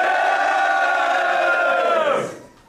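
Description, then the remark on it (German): An audience roars with sustained cheering and shouting as a performer from Darmstadt is introduced at a live event, loud and dense for about two seconds before quickly fading out. “Macht Lärm für Joe Farrow!”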